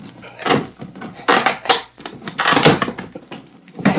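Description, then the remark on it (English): Wood creaks and cracks as a box is pried open with a hammer, in several loud, strained bursts of splintering and scraping with brief pauses between them. No one speaks. “Here, I'll pry the box open.”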